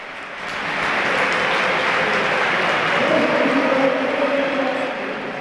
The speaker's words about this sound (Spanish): Todos son aplausos para el gallego de Curtis. Se retira Lucas, devuelve los aplausos, mucha gente aplaudiendo al de Curtis.